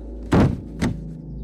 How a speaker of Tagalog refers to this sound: biglang meron kaming narinig na bumagsak sa sahig. Maingay talaga dahil kahoy ang sahig. Parang isang mabigat na bagay pa ang bumagsak.